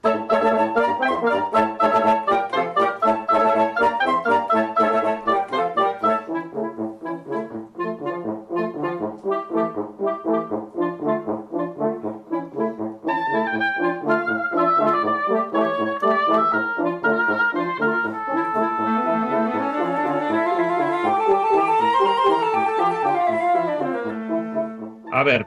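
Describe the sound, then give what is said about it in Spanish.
The wind quintet Ventart, part of the Orquesta Sinfónica del Principado de Asturias, plays a continuous piece from home during lockdown, several sustained woodwind and horn lines weaving together at a steady, moderate loudness, with no talking over the music. “Para que no os hagáis ilusiones, vosotros por la ventana no sonáis exactamente como suena este quinteto de vientos Ventart que forma parte de la Orquesta Sinfónica del Principado de Asturias”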